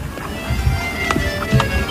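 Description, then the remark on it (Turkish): Several hard footsteps land at an unhurried walking pace, each a distinct knock over a steady hum of background street noise. The steps sound moderately loud. “Birileri bir yerde yürüyor.”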